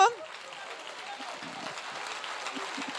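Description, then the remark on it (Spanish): An audience applauds in a steady, dense wash of clapping that holds at an even level for about three seconds, with a few voices faintly mixed in. “Dele fuerte el aplauso.”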